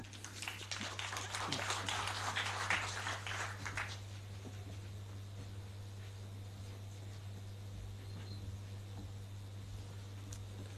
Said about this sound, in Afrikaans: Geef haar 'n lekker hande klap.